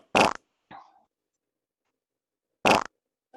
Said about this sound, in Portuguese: Ouviu? Que isso daí é sapo. É sapo isso. O que, que é isso? É de sapo. É o sapo, ó.